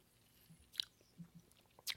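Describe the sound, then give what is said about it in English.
Someone quietly sips an orange Celsius energy drink from a freshly opened can: two short, wet slurping bursts about a second apart, with soft mouth and swallowing noises between them and no talking. “In fact, that's what I have here right now, and I'm gonna pop it open. Ah, oh, and have a sip live on the air.”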